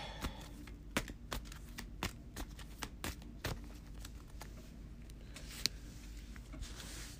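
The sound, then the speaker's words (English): A deck of playing cards being shuffled during a card game, with a quick run of crisp, irregular riffling clicks and taps lasting several seconds, quiet, with no one talking. “Shuffle that up real quick.”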